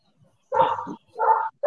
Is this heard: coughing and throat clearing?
no